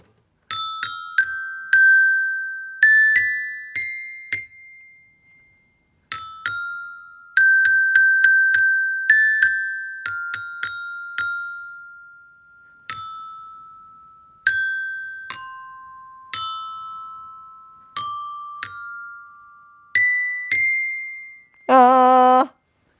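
A xylophone played by the show's host plays a bright tune of struck notes in short phrases with brief pauses, each note ringing and fading quickly, ending in a rapid flurry of notes. No one speaks.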